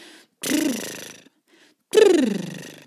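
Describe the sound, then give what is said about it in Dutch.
Two close, fairly loud lip trills, breath buzzing through fluttering lips; the second, longer one carries a voiced tone that slides downward in pitch. No speech. “terwijl dat je gaat uitademen, tril je je lippen door een licht briesje te maken”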